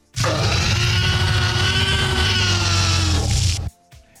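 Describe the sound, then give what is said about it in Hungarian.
A monstrous creature sound effect sold as a dinosaur call, like a pig's squeal: one loud, harsh, raspy cry held steadily for about three and a half seconds before cutting off abruptly, alone. “ez a rész egyébként ez dino hangnak van eladva”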